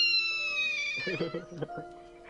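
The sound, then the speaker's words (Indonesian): A high, thin palm civet call played back through a speaker, one drawn-out, slightly falling wail, followed by lower voices talking over the fading sound. “Sing tak play suara apa? Delokan. Apa? Kuda. Musang. Iya, Musang.”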